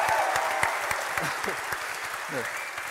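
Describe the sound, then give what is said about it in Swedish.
A short burst of audience applause for an illustrator who made illustrations for each holiday, dense overlapping claps at a steady moderate loudness, with a few faint voices mixed in underneath. “Och en liten applåd till han tycker jag.”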